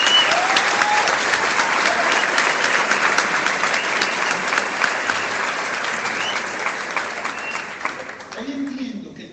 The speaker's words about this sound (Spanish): Ellos están aquí sentados, y yo quiero que me ayuden a darles un gran aplauso.